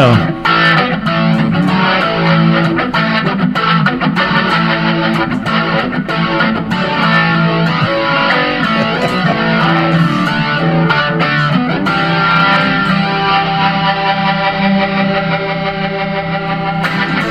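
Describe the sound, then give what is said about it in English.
A crunchy, distorted electric guitar played through a Burnley pedal into a Leslie rotating speaker for a guitarist's Leslie sound plays continuously at steady volume, its tone swirling and warbling, with dense sustained harmonics and no voices. “Hit the um, the the Burnley into the Leslie.”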